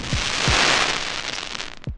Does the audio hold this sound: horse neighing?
no